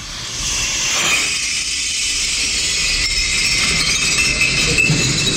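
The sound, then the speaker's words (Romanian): A loud, sustained rush of shattering and clinking glass as empty wine bottles are thrown into a metal glass-recycling container already full of about 7,000 empty bottles, at a wine competition in Berlin, continuing steadily with a few sharper impacts standing out. No one speaks. “Închipuiți-vă un, un nu știu, container de metal care este plin cu vreo 7000 de sticle goale pe care deasupra cărora se mai aruncă...”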